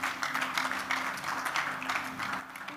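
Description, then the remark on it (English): An audience claps together for the Lord during a prayer service in a sustained burst of applause, dense and steady, for a few seconds with a faint hum beneath. “Give the Lord a clap of someone.”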